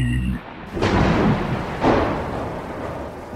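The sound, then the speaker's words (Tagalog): Two loud thunderclaps crack and roll into a low rumble over steady, hissing rain, filling the whole short stretch. “Biglang umulan na at dumagundong ang nakakatakot na kulog.”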